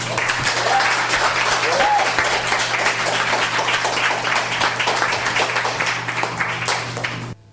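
An audience applauds steadily for about seven seconds after a reading and performance at an open mic reading series, a dense, even wash of many hands clapping, before it cuts off abruptly.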